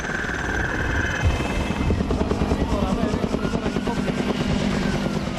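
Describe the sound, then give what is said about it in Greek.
A firefighting helicopter drones loudly overhead, its rotor thumping in a fast, steady pulse over a broad engine roar, with a brief high whine at the start, as aircraft drop water on flames rising from burnt ground in the Panorama settlement of Loutraki amid strong winds. “Με ρήψει νερού, τα ενέργεια μέσα επιχειρούν να σβήσουν τι φλόγε που ξεπηδούν μέσα από τα καμένα στον οικισμό Πανόραμα Λουτρακίου.”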